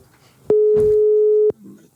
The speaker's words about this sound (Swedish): Nu ringer vi Finland, eller? Ja. Har eh, det bara börjat plinga i luren här?